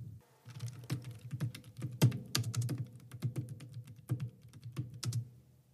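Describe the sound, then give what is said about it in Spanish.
Soft, steady typing on a quiet computer keyboard, a quick irregular run of muted key clicks with no voices. “Eh, voy a grabar un poco a ver si se aprecia ese sonido de, de las teclas.”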